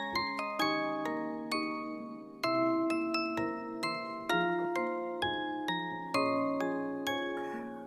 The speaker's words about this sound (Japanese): オルゴールっていいよなぁ。